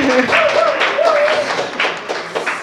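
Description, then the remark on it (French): An audience at a recording session at La Cale Zéro Déchet, 6839 rue Saint-Hubert, applauds with a dense, steady patter of many hands clapping throughout, while voices call out and talk over the clapping. “Ben, applaudissement.”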